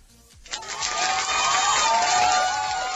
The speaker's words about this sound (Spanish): Este aplauso por la originalidad de la medida, por, por, haber puesto